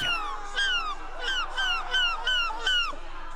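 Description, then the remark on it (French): The world champion of seagull-cry imitation imitates a seagull's cry at the Dunkirk carnival, letting out a rapid series of about seven shrill, downward-sliding squawks in a steady rhythm, loud, with no other talking. “Certes, le trésor de TF1 s'est bel et bien pris de passion pour le champion du monde euh, du cri de la mouette.”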